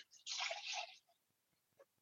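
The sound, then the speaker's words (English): Bubble mixture pours into a jug in a steady, splashy gush for under a second, then tapers to a few soft drips and small knocks. It is fairly loud, with no talking. “I'm going to pour my bubble mixture into a jug”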